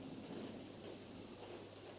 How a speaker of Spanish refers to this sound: Está lloviendo allá parece. Tiene chiste, tiene techo de chapa.